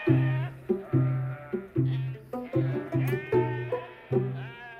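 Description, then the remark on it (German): Sheep bleat over and over in a steady run of about eight loud, nasal calls, each starting sharply and wavering at the end, with no one talking. “Was interessierten ihn blökende Schafe, depperte Hunde und verträumte Gustels?”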